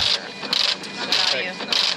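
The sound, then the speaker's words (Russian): A braille embosser prints a page sent directly from a file through the new Index Direct Braille application. Its loud mechanical hammering arrives in rapid rhythmic bursts, about four in two seconds, with a steady whir in between. “Это программка, которая позволяет посылать печать напрямую из файла на принтер.”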